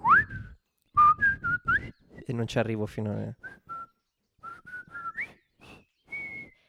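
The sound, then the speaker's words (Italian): Someone in the background whistles a famous march tune in short, clear melodic phrases, fairly loud, pausing briefly while a voice speaks in the middle before the whistling resumes. “Ecco, in sottofondo qualcuno la fischia ed è esattamente”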